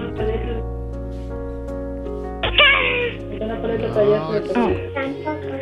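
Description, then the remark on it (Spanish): A child's voice imitates a kitten's meow, giving a couple of high, gliding mews at moderate loudness over a steady, sustained musical drone in the background. “¿puedes hacer el ruido de un gatito?”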